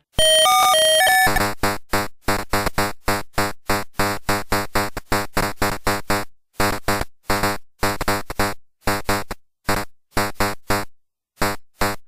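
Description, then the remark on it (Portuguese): The Atari Pac-Man game start jingle, played when a match begins: a brief bright electronic melody, then a long run of loud, buzzy chiptune bursts pulsing in a steady rhythm with short gaps, no voices. “E ele era muito característico dele, porque assim, quando começava a partida do Pac-Man, eu até mandei para vocês o link porque talvez vocês não tenham essa lembrança, que era muito legal”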